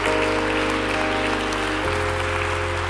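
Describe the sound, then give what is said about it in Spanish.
Loud, sustained applause for the Lord from a crowd at a Grupo Unidad church service fills the whole clip, a steady wash of clapping over held keyboard chords that shift to a new chord about two-thirds of the way through. “Denle un aplauso fuerte al Rey de Reyes y Señor de todos los señores.”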